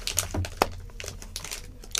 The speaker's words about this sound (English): Um, so it's got the uh, traditional Cadbury purple packaging there. Yep. And you're peeling back the wrapper. What do we got on the inside?